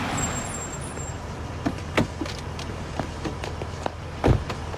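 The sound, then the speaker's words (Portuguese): A car rumbles along, its steady road noise filling the background, with a few sharp thumps and clicks scattered over it and no voices. “Para o carro.”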